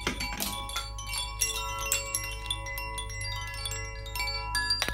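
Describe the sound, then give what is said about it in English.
A koshi wind chime is played, ringing continuously, its bright, shimmering tones overlapping in a gentle, irregular cascade with sustained ringing partials, moderately loud, with no voices. “Kosh is uh, like a wind chair.”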